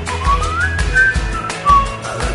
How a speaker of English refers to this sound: Theme song to FX show The last two seasons. Uh, Terriers.